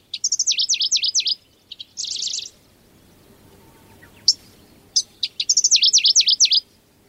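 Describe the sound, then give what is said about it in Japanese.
A Middendorff's grasshopper warbler, flying up from the grass in a corner of a dairy pasture in Toyotomi, Hokkaido, Japan, sings two loud bursts of rapid, warbling notes, separated by a pause with a few sharp single chirps, over a quiet background. “牧場の片隅で草むらから飛び立っては歌いまた元の位置に戻る島潜入忙しそうな小鳥の遠く向こうでは牛たちがのんびりと草を食べています”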